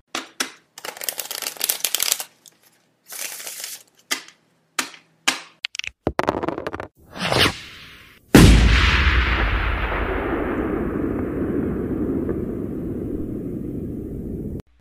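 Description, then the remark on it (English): Rapid card shuffling and a few quick clattering dice rolls give way to a sudden loud firework boom that rumbles and crackles as it slowly fades out, with no talking; a transitional sound effect put together by T Rex for the Gambling with Gabriel segment. “I do love I do love that card shuffle, dice throwing, firework going off, transitional sound that T Rex has put together for that.”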